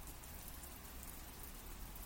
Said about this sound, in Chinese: 你外面在下雨诶，你不舒服的话，今天就请个假吧。